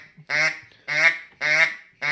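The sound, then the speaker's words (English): A duck call blown in flat, evenly spaced quacks imitating a relaxed hen mallard on the water, four short nasal blasts about half a second apart, fairly loud with no talking over them. “Because you got that flat quack going on, which is still ducky and realistic, which is just saying, "Hey, this duck, this hen mallard on the water is just meh, swimming around.”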